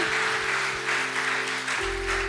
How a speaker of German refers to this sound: Lass uns einmal den Betern einen Applaus, Dankesapplaus geben. Danke, dass ihr, das, dass ihr mit uns gebetet habt heute.